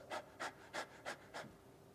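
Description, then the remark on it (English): A child pants rapidly, five quick, breathy huffs in an even rhythm about a third of a second apart, fairly soft, with no talking. “Still to this day, breathes about 60 times a minute.”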